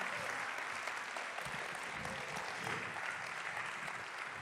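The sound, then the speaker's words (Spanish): A church audience applauds loudly for the Lord. Many hands clap at once in a dense, steady wash that holds without a break for several seconds. “Alguien le puede dar un aplauso fuerte al Señor.”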